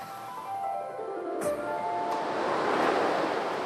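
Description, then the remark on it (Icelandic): Ocean waves wash onto the coastline at Dyrhólaey, the southernmost point of Iceland, in a steady, rushing roar that swells louder toward the end, with some wind noise and no voices. “Hér blasir við sjálf dýrhóla ei sem er síðsti otti Íslands og náttúrann hérna er stórbrotinn.”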